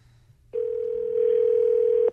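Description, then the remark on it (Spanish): A steady telephone dial tone, heard while someone dials a father, begins abruptly and holds as a single continuous electronic hum for about a second and a half, clear, then cuts off. “A ver, estoy marcándole, ¿ok, mi amor?”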